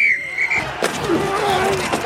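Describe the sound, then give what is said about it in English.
A dense jumble of sports sounds layered together in a Sling advertisement: football pads colliding, high squeaks of shoes on a basketball court, the sharp crack of a bat on a home run, skates slicing across ice, and busy background noise, all loud and overlapping for a couple of seconds. “That's the sound of all the sports you love, all at once.”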